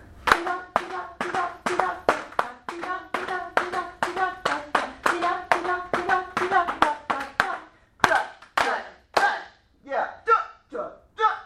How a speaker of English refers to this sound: So will you sing it and do the juts, okay, and put claps on the juts. Two, ready, go.